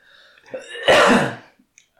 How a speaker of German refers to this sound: deswegen äh, mussten wir da den Huster rauscutten.